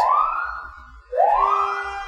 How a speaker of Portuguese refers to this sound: Tem uma ambulância esquisita passando. O que será que é isso?